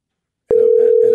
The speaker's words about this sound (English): You better answer the phone